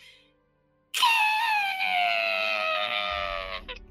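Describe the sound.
A voice imitates metal scraping against stone: one loud, sustained screech lasting about three seconds, its strained pitch sagging slightly, after a brief quiet moment.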